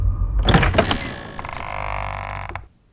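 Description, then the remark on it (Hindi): A door opens: a few rattling clunks as it starts to move, then a long, drawn-out creak of the hinges that stops abruptly. No one speaks. “अरे बाबा दरवाजा खोलो ना मैं हूं मगर अंदर से कोई प्रतिक्रिया नहीं आई थक हार कर तीनों वापस जाने के लिए बड़े ही थे कि तभी दरवाजा खुल गया”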